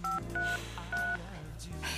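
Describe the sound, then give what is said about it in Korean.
Three short phone keypad tones beep in quick succession as a phone number is entered into a mobile phone, each a steady dual-pitched beep, over a low constant background hum with no talking. “이거 제 전화번호거든요?”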